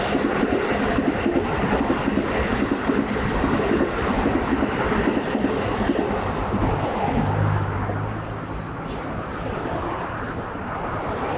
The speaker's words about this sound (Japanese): ちょっと、ちょっとね、電車沿いのところとかに戻ってきてるんで、また少し音が入ることがあるかと思いますが